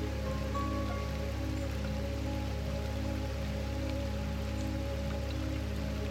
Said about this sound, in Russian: и начинает поливать прилегающую к клумбам траву. Каждая травинка опускается под потоком воды и снова поднимается.